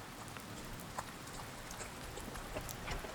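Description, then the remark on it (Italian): Steady evening rain falls in a city outside a theater with a dense, even hiss, punctuated by scattered drips and splashes; no voices, just the continuous wash of rainfall. “È la sera della prima e la pioggia ha sorpreso l'eleganza della nobiltà cittadina”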